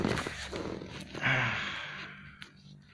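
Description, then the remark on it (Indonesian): Crinkling and rustling of the plastic wrapper of a hotel toiletries package being pulled and torn open, a steady scratchy burst of handling noise lasting a few seconds with no one talking. “dan ada alat mandi nih waduh alat mandi ini apa ini uh, alat mandinya Bentar, aku buka dulu alat mandinya”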